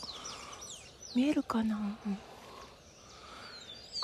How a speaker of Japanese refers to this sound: これねもう少し後になるとまた別の鳥が鳴き始めるともうこれすっごい鳥の声聞こえるね